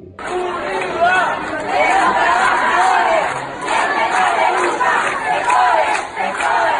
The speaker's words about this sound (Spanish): Cuenta la leyenda que en un lejano país se escucha un grito.